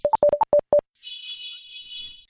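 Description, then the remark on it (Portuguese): A rapid run of about seven short electronic beeps, then a harsh, sustained high buzzer tone lasting over a second, steady and fairly loud, with no voices. “Essa buzina foi você”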